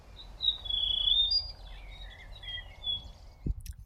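Birds sing in Uussila park, a city park, a string of high, thin chirps and warbling phrases over a low rumble of background noise, with a brief thump near the end.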